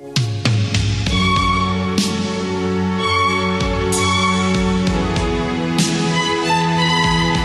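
An upbeat instrumental tune from a Purina dog-food advertisement plays loud and clear with no voices, sustained melodic notes over a steady bass line, punctuated by regular percussive hits that give it a bouncy, jingle-like rhythm.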